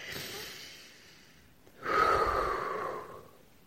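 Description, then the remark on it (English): A slow, airy deep belly breath taken as a stress-management breathing exercise, a softer intake followed by a fuller, louder exhale lasting over a second, with no talking. “Um, number two, belly breathing, deep breath.”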